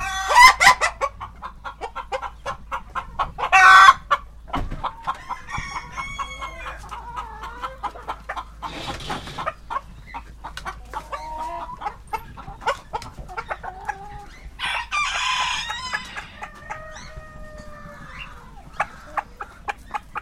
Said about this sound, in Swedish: är så häftigt det här lätet tycker jag när de, när de kallar på hönorna.